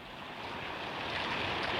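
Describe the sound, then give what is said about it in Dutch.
A dense, steady hiss of heavy rain beginning to pour down, growing slightly louder over a couple of seconds, with no voices. “daar begon het te regenen. Eerst dikke druppels en toen stralen tot het water uit de hemel goot.”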